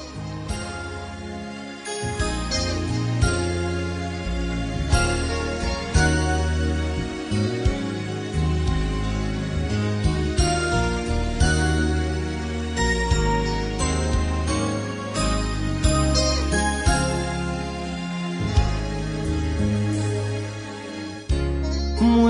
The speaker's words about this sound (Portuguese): eu queria nesse momento parar aqui para ouvir essa canção. Eu queria ouvir aqui uma canção e daqui a pouquinho nós damos continuidade.